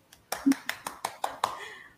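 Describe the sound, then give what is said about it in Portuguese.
Brief live applause of about six crisp hand claps in a quick, steady rhythm after a song performance, with a faint voice trailing in the background at the end. “Aplausos aí, ó.”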